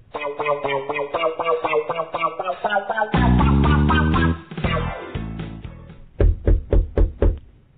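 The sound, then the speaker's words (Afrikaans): After a stretch of music, five crisp, evenly spaced knocks rap on the wooden door of Karel Kabouter's toadstool house early in the morning, fairly loud, standing out clearly at the end. “Word daar op die deur van Karel Kabouter se paddastoelhuisie geklop.”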